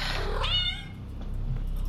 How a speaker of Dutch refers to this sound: Ah, poes.